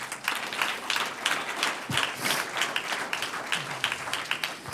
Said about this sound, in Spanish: Un aplauso al que vive.